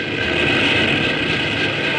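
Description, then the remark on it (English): A logging train engine starts up to go backwards: a loud, steady engine rumble with a dense low drone and broad hiss that holds constant for the whole two seconds. No voices are heard. “As Poncho starts the train, Kevin releases the avalanche of timber.”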